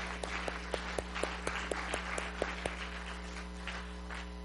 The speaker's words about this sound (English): God give Jesus a big hand clap today.